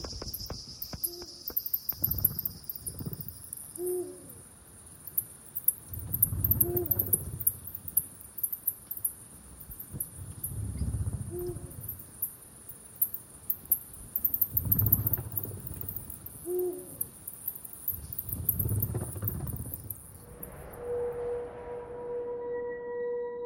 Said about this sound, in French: se déplacent dans le noir et détectent leur proie. Les ultrasons butent contre les papillons de nuit et les moustiques et reviennent vers la chauve-souris. Cette chasse unique, c'est l'écolocation. Une activité secrète que l'on peut enfin percevoir.